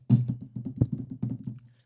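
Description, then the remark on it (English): Rapid, heavy keyboard typing: about a dozen quick, hard key strikes in an uneven burst, fairly loud, with no one talking. “slapping the shit out them keys, motherfucker.”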